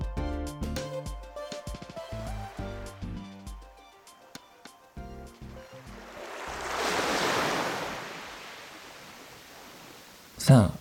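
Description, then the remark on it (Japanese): A short musical jingle gives way to an ocean wave in Yokohama swelling in and washing back out, a single broad rushing surge, fading before a brief sharp sound at the end. “横浜を旅する今夜のエクスカーション波音が聞こえてきましたね”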